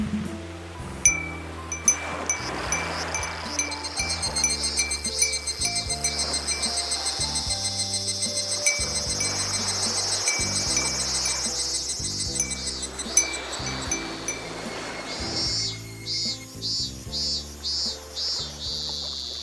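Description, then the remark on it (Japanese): A dense, shrill chorus of cicadas drones steadily for nearly the whole stretch, loud, with a rhythmic musical backing pulsing underneath and the buzz thinning out toward the end. “セミの鳴き声で夏を思い出すかな。”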